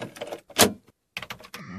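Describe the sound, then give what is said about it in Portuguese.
Short bursts of a drill grinding into a wall in a home, separated by brief pauses, ending in a steadier whining motor tone. Moderately loud, with no talking. “O cara é tá furando a parede, vai sair aqui em casa daqui a pouco”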